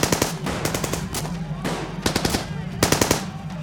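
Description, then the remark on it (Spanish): Bursts of rapid gunfire crackle in quick succession, several loud volleys of sharp shots separated by brief pauses, with no voices present; an armed gang shooting people made to get out of their pickup trucks on a highway toward Matamoros, Tamaulipas. “De inmediato, los criminales los hicieron bajar de las camionetas y en cuestión de segundos sonaron los disparos.”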